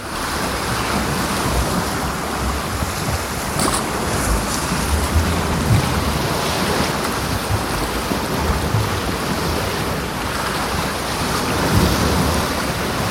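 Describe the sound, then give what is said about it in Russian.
Binaural ambient recording of the sea: steady, enveloping surf of waves washing in continuously, a broad rushing roar with gentle swells, with no voices. “И чаще всего это такие эмбиент записи, записи окружающего шума, окружающего мира. Ну, например, море.”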